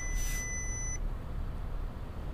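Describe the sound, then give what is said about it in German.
A single steady electronic warning tone from a car dashboard signalling 'check coolant' (Kühlmittel prüfen), high and thin with a sharp sustained pitch, lasting about a second over a low rumbling hum, then just the engine-like drone. “Kühlmittel prüfen. Ist das so, dass das Kühlmittel prüfen?”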